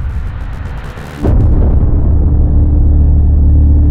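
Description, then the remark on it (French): A sudden, loud explosion of reactor number 4 at a nuclear power plant at 1:23 in the morning, after a short circuit, bursts in after a second of hissing noise, then gives way to a heavy, continuous low rumble that stays strong to the end. No one speaks. “le bruit d'une explosion leur vrille les oreilles.”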